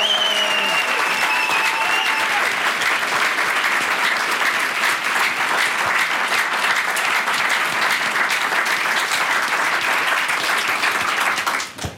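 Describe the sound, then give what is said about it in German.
A large crowd claps loudly and steadily for about twelve seconds, with a few whistles and cheers mixed in near the start, before the applause cuts off abruptly at the end, as an audience welcomes a guest onto the stage. “Bitte begrüßt mit uns gemeinsam genauso heftig, wie ihr das mit Tara gemacht hättet”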